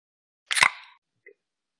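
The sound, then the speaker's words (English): A beer can snaps open with a sharp crack, followed by a brief fizzing hiss that quickly fades, then a faint small clink, with no one talking. “you cracking them, cracking them.”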